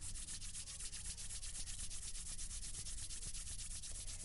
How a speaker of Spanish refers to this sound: Bien, podemos sentarnos o no, pero vamos a frotar las palmas de nuestras manos, sobre todo los centros. Froten el centro de la palma de su mano. Frótenlo vigorosamente. Eso es, van a escuchar este ruidito.